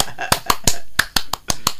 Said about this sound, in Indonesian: Oh, salah ya. Oh, itu tepuk pramuka.